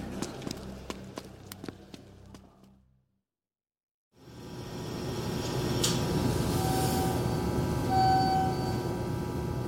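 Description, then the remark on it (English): Quick, steady footsteps tap for a few seconds, then a brief silence gives way to the loud, continuous rumble and hum of a sky rail train running, with a faint whine rising over it. “I need to catch the Skyrail.”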